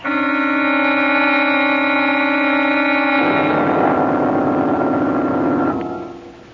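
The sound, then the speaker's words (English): The switch of an electric chair is thrown: a loud, steady electrical hum drones as current surges, shifting halfway through into a rougher, crackling buzz before fading out near the end. No one speaks. “now the switch and eternity.”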